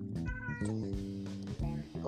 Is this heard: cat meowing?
yes